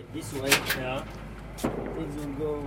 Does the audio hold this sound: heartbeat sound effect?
no